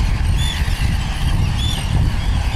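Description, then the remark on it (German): Shrill, squealing calls of breeding gulls rise and fall a couple of times over a steady, loud low rumble like wind or traffic noise. No one speaks. “Nein, ich mag Möwen, alles gut. Ich mag, ich mag ihre Geräusche, weil sie machen halt diese, sie sind halt ein wesentlicher Bestandteil der maritimen Atmosphäre.”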